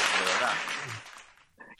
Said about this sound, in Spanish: Que, bien el aplauso. Sí, ¿verdad? Es la gente que tenemos aquí, todos los que están en el directo.